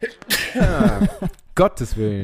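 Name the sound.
sneeze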